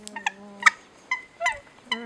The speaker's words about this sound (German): Die Hawaii Guns feiert das, ich feiere das mit ihr, mein Vogel der Woche. Die kleine Nene.